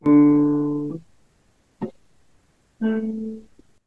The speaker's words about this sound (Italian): Con semplici quattro note, di cui due sono un intervallo di seconda minore che è una dissonanza, anzi che posso anche farvelo sentire.